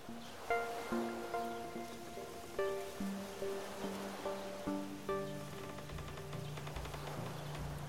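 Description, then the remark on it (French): A gentle lakeside ambience: a soft, steady wash of lake water and a light wind moving the tree branches and skimming the water's surface, heard beneath slow, ringing melodic notes, with no voices. “tout doucement, un vent léger vient faire danser les branches des arbres dessinés sur l'eau.”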